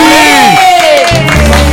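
Loud applause from an audience, mixed with cheers and high whoops that swoop downward in pitch, followed by a low sustained hum under the clapping.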